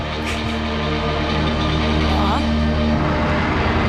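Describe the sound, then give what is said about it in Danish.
A loud, continuous drone of electric guitar feedback, made by guitar alone, with layered sustained tones holding steady and a brief rising whine partway through, filling the whole stretch without pause. “men det er jo faktisk kun guitar, der laver de her lyde. Men måske med en, en violin. Nej, det, jeg tror bare, det er feedback.”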